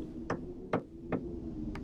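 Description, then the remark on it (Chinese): Four sharp taps of tree branches scratching and knocking against a window, spaced unevenly over a steady low rumbling background. Each tap is short and crisp, with no voices present. “就是几个树杈在刮着窗户，啪嗒啪嗒的。”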